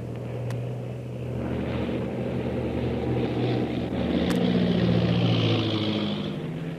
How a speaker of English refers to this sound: I'll bank the plane and come in from the other side. Maybe we'll attract someone's attention so they'll have time to move the boat.